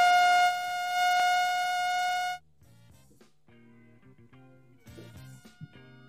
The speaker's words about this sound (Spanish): Sí, bueno, tuvimos una emergencia sonora en este momento. Así que vamos a corregir la chicharra. Sonó la chicharra de que ya estábamos para escuchar música.